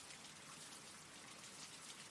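Steady rain falls without a break, a dense even hiss of drops with no voices. It stays fairly quiet and constant throughout.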